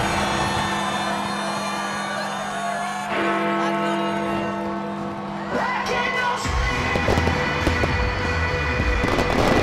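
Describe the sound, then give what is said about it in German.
New Year's Eve fireworks at midnight, 1000 rockets hissing into the night sky: steady whistling tones and rising whizzes, then a dense burst of crackling bangs in the last few seconds, with a crowd faintly audible beneath. “eine Explosion an Farben und Formen. 1000 Raketen zischen in den Nachthimmel, malen für Sekunden grandiose Bilder in die Dunkelheit.”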